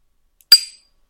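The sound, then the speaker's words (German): A pen taps a drinking glass once, giving a single bright clink with a short ringing tone that fades quickly. Fairly loud, with silence around it and no talking. “Also man hörte das, Glas.”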